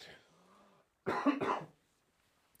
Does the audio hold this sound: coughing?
yes